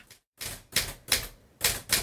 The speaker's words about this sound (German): Ja, genau, ihr hört jetzt das Tippen einer Schreibmaschine. Auch wenn sie über 150 Jahre alt ist.